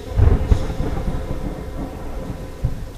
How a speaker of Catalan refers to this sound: Com pot ser que Déu ens enviï una tempesta així?